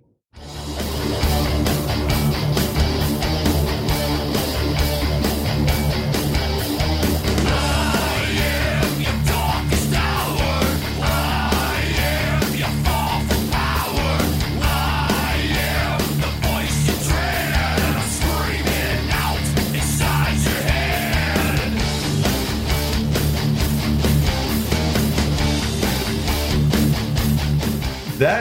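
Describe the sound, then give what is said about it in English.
A thin, tinny distorted metal guitar tone plays steadily for the whole stretch, loud and dense with busy chugging riffs and no voices over it. “it sounds like it's coming from the speakers of a 30 year old cell phone.”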